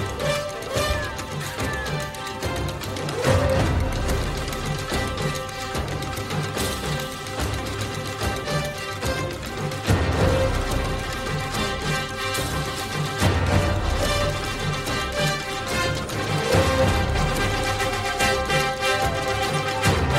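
Lush orchestral theme music from the animated film Bernard et Bianca plays steadily throughout, full and fairly loud, with sustained melodic lines and swelling passages. No one speaks.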